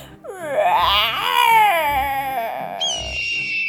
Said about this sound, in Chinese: 屋内鬼哭神嚎，阿猫哀鸣惨叫，阿猫被众鬼魂吓得目翻白眼，口吐白沫，当场昏厥。